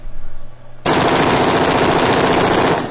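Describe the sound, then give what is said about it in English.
A sustained burst of rapid automatic fire from an AR rifle erupts after a brief low hum, loud, the shots rattling continuously for about two seconds before cutting off as the full clip is emptied. “one of those days where you just need an AR break”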